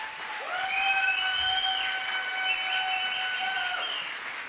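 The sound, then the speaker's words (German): During a sermon, an audience applauds a speaker who is about to give a testimony, in a steady, dense wash of clapping for several seconds. A loud, sustained high whistle rings out over it, sliding slightly in pitch before fading. “Gib ihm einen Applaus.”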